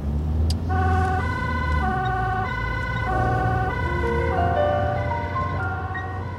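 The emergency siren of a Rijkswaterstaat road inspector's vehicle, switched on for an urgent call-out, wails loudly in a steady, repeating two-tone pattern, its bright harmonic notes stepping up and down over a constant low engine rumble.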